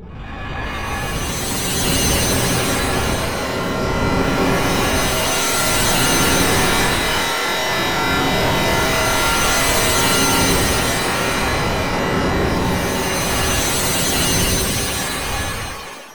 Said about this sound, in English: so let's crack on, crank up the engines of Fab Radio's very own TARDIS, and find out where the old girl is taking us today.